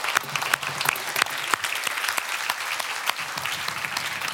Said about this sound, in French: Est-ce qu'on peut encore applaudir le nom du Seigneur ce soir